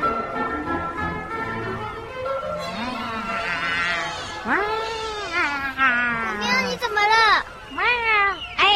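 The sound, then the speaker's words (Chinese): A fat cat meows and caterwauls in a run of drawn-out, wavering yowls that rise and fall in pitch, growing louder and more insistent toward the end. “臭肥猫啊，你干嘛？”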